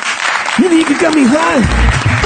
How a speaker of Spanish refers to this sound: Un aplauso para Jorge Ponte, por favor.